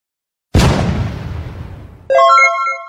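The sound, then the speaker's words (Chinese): In a Mario video game, Mario uses a Chain Chomp iron ball to smash a rock in the Cascade Kingdom: a loud booming crash that crumbles away for over a second, followed by a bright, sustained chime of ringing tones. No one speaks. “马里欧利用汪汪铁球将岩石砸碎。”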